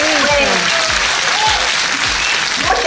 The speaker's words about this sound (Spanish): por favor, al fin, un aplauso. Un aplauso para